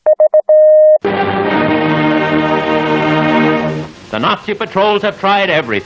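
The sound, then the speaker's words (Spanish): Three quick electronic beeps followed by one long tone, the Morse letter V, whose rhythm matches the opening of Beethoven's Fifth Symphony, sounded clearly on their own before a sustained musical chord swells in and a voice begins talking. “Y sucedió que, en la Segunda Guerra Mundial, la BBC iniciaba las transmisiones por radio a los aliados con la quinta de Beethoven para transmitir la V de la victoria, porque V en Morse se escribe tal y como comienza la quinta sinfonía.”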